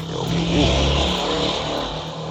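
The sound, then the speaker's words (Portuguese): A motorcycle engine drones past outside, a steady, fairly loud low rumble with a throaty buzz that swells slightly and holds for a couple of seconds, with no one talking. “A moto... A moto é. Ela, ela, ela, quer fazer parte.”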